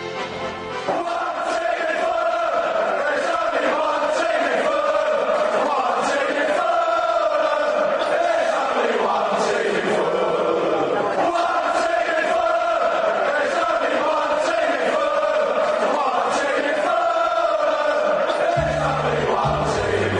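Chelsea football supporters chant in unison, a loud mass of voices singing a sustained melodic tune whose phrase repeats about halfway through, continuous for the whole stretch with no pauses.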